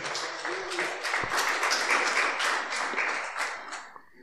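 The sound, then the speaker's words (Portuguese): A church audience applauds the Lord steadily, a dense wash of many hands clapping at once that holds strong for about four seconds before tapering off. “Aplauda ao Senhor com muita alegria.”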